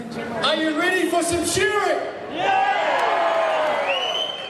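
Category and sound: crowd, stadium crowd cheering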